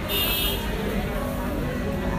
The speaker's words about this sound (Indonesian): aduh berisik aduh berisik alarm matiin